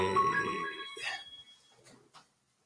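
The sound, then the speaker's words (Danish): A mobile phone rings with a bright, tonal electronic chime for about a second, then cuts off, followed by faint rustling and a few soft sounds. “Undskyld, nu ringer min telefon”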